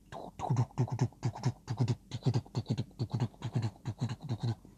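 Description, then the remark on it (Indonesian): A father imitates a horse with his mouth, making a steady, rhythmic run of short voiced bursts like trotting hooves, moderately loud, with no other talking. “Iya, suara kuda. Itu tapi suara mulut ayah.”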